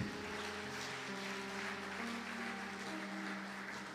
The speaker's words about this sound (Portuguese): Pode aplaudir o Senhor aí.